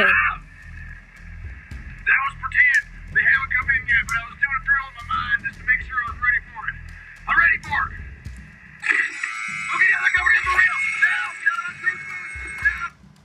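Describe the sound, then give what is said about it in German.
Tinny, radio-like voices talk back and forth, then a loud, sustained electronic alarm starts blaring and keeps sounding through the last few seconds while voices continue over it. “Da ging der Alarm los.”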